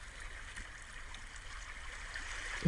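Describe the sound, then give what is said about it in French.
Soft, steady wash of shallow sea waves lapping onto a beach and around the ankles of someone standing in the water, a continuous gentle hiss and trickle with a slight swell at the very end, with no voices. “La caresse des vagues qui se déposent sur la plage vient enrouler doucement autour de nos chevilles”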